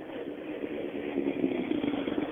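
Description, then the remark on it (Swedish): A rally car engine idles steadily, a continuous mid-pitched rumble with a low humming tone that grows slightly rougher and louder toward the end. No one speaks. “Vi vet ju att, eh, som vi sa tidigare, att bilen är ju i toppform.”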